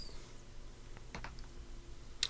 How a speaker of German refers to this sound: du darfst erstmal wieder deinen W3 würfeln.